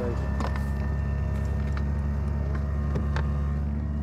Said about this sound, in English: Although it's a sailing boat, they use a small engine to get out of the harbour and into the open sea. It's okay, the engine is.